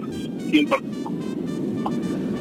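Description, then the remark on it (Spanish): A steady, droning low hum fills the inside of a moving car while the speaker drives, heard over a phone connected to the car by Bluetooth, with a few brief faint vocal sounds rising over it early on. “bueno, pues te has subido en el coche, ¿verdad? Ha cambiado el sonido y ahí tenemos un poquito de más dificultades.”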